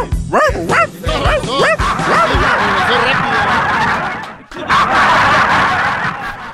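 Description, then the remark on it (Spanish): A person imitates a dog, barking out their own name, with a rapid series of loud, yelping barks and yips in the first two seconds, followed by a dense, noisy wash of crowd-like sound and chatter. “eso, ladrando decir su nombre, Usted le acaba de cambiar.”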